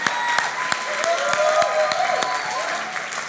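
A church audience claps steadily, giving a man a hand during a service, a dense wash of hand claps with a few sharper claps standing out, plus faint voices and cheers mixed in.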